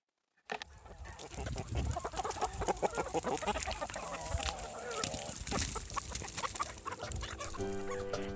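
Chickens cluck and squawk steadily in a busy flock, with overlapping calls and occasional louder honking cries throughout, and no one speaking.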